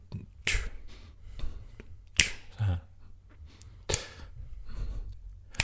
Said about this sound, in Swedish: behöva en, en, eh, en slow beat, alltså rap, om du kan knäppa fingrarna eller någonting.